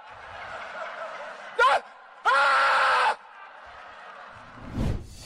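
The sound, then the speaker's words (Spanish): A man lets out a short, sharp yell, then a longer, sustained loud scream lasting close to a second, over a faint background murmur, during a short speech reflecting on the year 2020. “dan ganas de gritar igual que Jim Carrey después de recordar todo lo que vivimos en el 2020”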